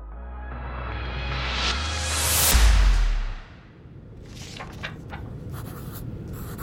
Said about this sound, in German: blättert auf die nächste Seite seines Notizblocks und schreibt weitere Anweisungen aus Houston für die zweite Brennphase auf, die in ein paar Stunden stattfinden soll.